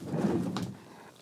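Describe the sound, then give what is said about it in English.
An office chair is rolled briefly across a hard floor over to the station where a pedal was, a low rumbling glide lasting about half a second that ends in a small sharp clack, then fades. Nobody speaks. “just rolling across the floor. So I rolled my chair over to the station where the pedal was because I was going to, you know, move some knobs, but I could hear the microphone.”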